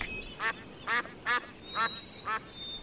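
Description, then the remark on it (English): Ducks quack five times in a steady, evenly spaced series, clear, at a park where birds are being fed, with faint outdoor background and a thin high bird whistle. “Wilma, Wilf, and Dad fed birds.”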